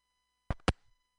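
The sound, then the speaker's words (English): A cell phone call from the mountains in Grass Valley cuts out with two quick bursts of harsh digital crackle over a faint, steady electronic tone, then goes quiet. No one speaks. “I lost you. You're back.”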